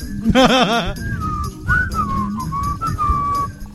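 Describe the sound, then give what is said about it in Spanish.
A person whistles a wavering, sliding melody, opening with a quick warbling trill and then drawing out long bending notes over faint background rumble. “yo chiflo.”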